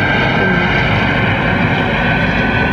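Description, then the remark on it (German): A helicopter drones steadily overhead, a loud, constant engine roar with a low churning rotor rumble that fills the whole stretch without easing off. “Lassen den Hubschrauber kurz ab.”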